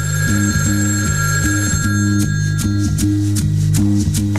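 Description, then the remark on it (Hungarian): A telephone rings again, loudly and steadily, its tone pulsing in a repeating pattern for several seconds with no one speaking. “Újra csengett a telefon.”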